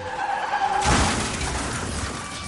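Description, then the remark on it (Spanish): A loud crash of a car into a huge train: a brief squealing skid gives way to a sudden, violent impact, followed by a sustained rumble of crunching metal and shattering debris. No voices. “Sin embargo, Sykes no pudo hacer lo mismo y su coche se estrelló sin remedio contra el enorme tren.”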